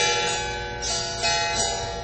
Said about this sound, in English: It's kind of like a guitar, but it's like on a triangle plate.